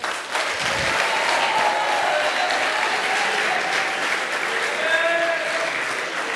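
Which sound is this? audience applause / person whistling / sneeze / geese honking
audience applause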